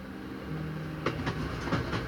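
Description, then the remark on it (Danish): A train heading from Fredericia station toward Frankfurt rolls along the tracks with a steady low rumble, broken by a few sharp clickety-clack beats from the rail joints at an uneven rhythm. The sound is fairly loud, with no voices. “Moren tager deres to døtre med til Fredericia station, hvor de alle tre tager toget mod Frankfurt.”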